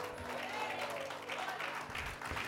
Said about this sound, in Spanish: Una nada más aplaudió, gloria a Dios.